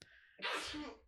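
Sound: sneeze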